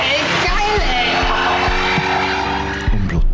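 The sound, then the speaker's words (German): A loud car engine roars and revs steadily while tires squeal and screech over it, with a few low thumps breaking through the continuous noise. “Es geht dabei um Autos mit Fuchsschwanz.”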